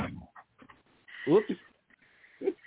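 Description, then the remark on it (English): A cat lets out a single short, whiny cry near the middle, clear, with a bit of laughter and a brief spoken exclamation around it. “that was my cat.”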